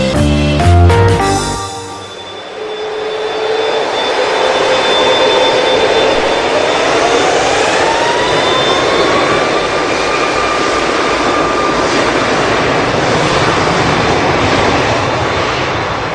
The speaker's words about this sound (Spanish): Así suena un despegue de un Boeing MAX 7378. Y este es precisamente el más reciente modelo, Gonzalo, creado por la compañía y del cual ya hay eh, decenas circulando en los cielos eh, del planeta.